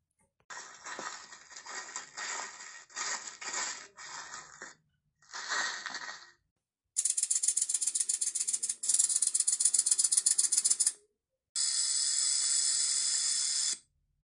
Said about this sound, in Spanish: ¿Escuchaste eso? Es una serpiente.